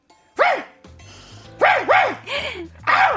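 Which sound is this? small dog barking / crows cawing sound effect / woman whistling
small dog barking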